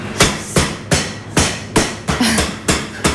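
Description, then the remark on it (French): A farm chicken fillet, cut in half, is pounded flat with a mallet so it can then be stuffed: about ten loud, sharp thuds in a steady, fairly quick rhythm, each with a brief rattling tail, and no talking. “Et maintenant, je vais l'aplatir pour pouvoir ensuite le farcir.”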